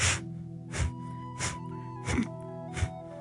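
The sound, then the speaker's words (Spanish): Five forceful nasal exhales in a steady, fairly rapid rhythm, breath-of-fire style, each a short sharp whoosh made by pushing the belly back toward the spine, clear over a low continuous hum, with no talking. “¿Qué es la respiración de fuego? Otras veces lo hemos hecho. Empujamos el vientre hacia atrás.”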